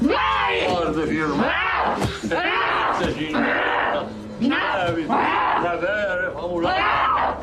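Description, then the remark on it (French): Loud, strained vocal cries and groans, sustained, with overlapping voices rising and falling in rough, wavering bursts, almost no pause between them, recorded during an exorcism of a woman held on a chair by three men, filmed by a documentary crew. “Le son que vous entendez, c'est l'extrait de l'exorcisme qui a été filmé par l'équipe du documentaire.”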